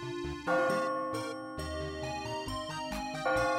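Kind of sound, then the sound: signal or alarm, clock bell chiming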